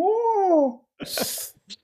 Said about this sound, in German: Ich habe äh, hab einen speziellen Gast heute mitgebracht. die Katze.